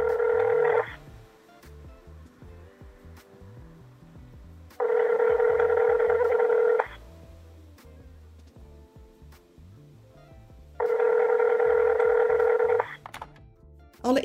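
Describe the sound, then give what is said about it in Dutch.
A telephone ringback tone purrs through the earpiece three times as a phone call is placed, each steady electronic burst lasting about two seconds and separated by longer pauses, with a low murmur underneath. “ik ga haar even bellen.”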